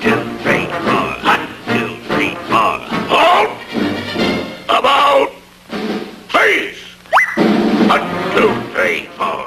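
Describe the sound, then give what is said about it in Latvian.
A dog yaps and whines in a quick, steady run of short barks, fairly loud, with a brief rising whistle-like squeal partway through, as it walks along a fence with a family of chickens behind it. “Nu, labi, paklausīsimies, kā kāds angļu valodā runājošs suns soļo gar sētu, aiz kuras ir vistu saime, kura jānosargā no zebiekstes.”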